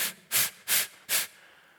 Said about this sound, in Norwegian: Jeg vet ikke om noen av dere noen gang har prøvd å bare puste inn. Da blir det veldig fort oppblåst. Eller hvis du bare puster ut,